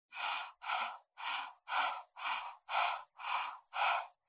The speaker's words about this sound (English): you're breathing in and out of your mouth